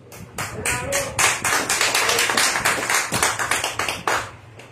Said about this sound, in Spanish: Un fuerte aplauso.